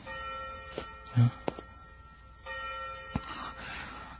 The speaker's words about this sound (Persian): میروم میروم و آنجا میدم صدای زنگ مرا میخواند اما تو ای دنکن بدان گوش مدار که این صدای آن ناقوس عزایی است که تو را به بهش میخواند یا به دوزخ